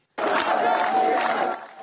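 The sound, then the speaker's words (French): A large crowd of hundreds at the cemetery of Aichi in Iran, where the young woman is buried, chants loudly and steadily as women wave their veils overhead, many voices merging into a dense, sustained roar that starts abruptly and eases slightly toward the end. “Des femmes agitent leur voile au-dessus de leur tête et la foule se met à scander.”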